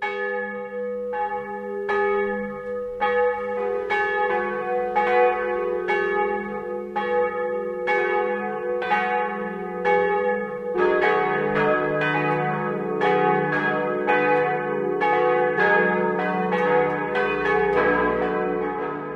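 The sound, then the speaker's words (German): Church bells ring out the noon peal in Antolling, Upper Bavaria, Germany: overlapping strikes in a steady rolling rhythm with long shimmering resonance, loud, a second bell joining partway through. No voices. “Das Mittagsläuten kommt heute aus Antolling in Oberbayern.”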